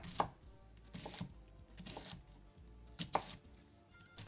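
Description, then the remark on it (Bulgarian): A knife chops an onion on a cutting board in steady, evenly spaced strokes, about four sharp knocks with crisp cutting noise between them, no voices. “Отново нарязвам лук, този път на купчета.”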